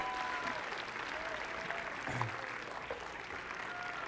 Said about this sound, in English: Can we give them a hand clap as they walk back to their seats? Go ahead and give them a clap.